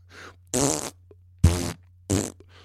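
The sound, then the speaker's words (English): A series of four or five wet, buzzing fart sounds in quick succession, a faint one first and then three loud, raspy bursts of about a third of a second each, over a steady low hum. “Listen to your podcast critics if you want, but just know that I, and I'm sure many others of us, would still love your podcasts, even if you farted into a can for 45 minutes.”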